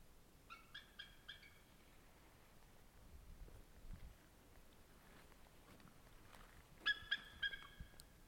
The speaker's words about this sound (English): Oh, here comes another eagle he just called his mate to him, and the other eagle's flying over to meet greet him. It looks like.